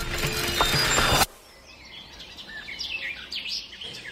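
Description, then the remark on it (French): A loud, grinding mechanical noise cuts off abruptly, leaving birds chirping in a quiet outdoor space in the morning: a steady stream of short, high tweets and trills. “C'est le matin, le soleil pointe à l'horizon et au lieu des oiseaux qui gazouillent, on entend le rugissement sourd de la boule de feu.”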